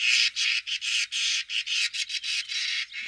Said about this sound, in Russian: Давайте мы скворца запустим в студию заодно, пусть полетает тут немножко, а мы будем про него разговаривать. Э, скворец очень интересная, красивая птица.